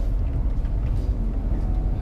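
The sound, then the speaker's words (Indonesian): A steady, low rumble of engine and road noise fills the cabin of a moving car, constant and fairly loud throughout, with no voices or distinct events standing out. “lagi di atas motor tapi kalau di atas motor kayaknya bakal susah karena terlalu bising tapi kan kalau di mobil lebih senyap gitu ya jadi ya enak aja gitu kerekam di mobil”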